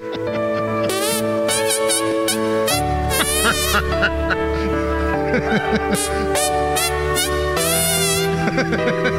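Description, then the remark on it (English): Christmas favorites played as squelchy fart noises a man makes with his hands, riding loudly and continuously over a full, bass-heavy musical backing with sustained harmonic tones. “This is some of your Christmas favorites performed by a guy making fart sounds with his hands.”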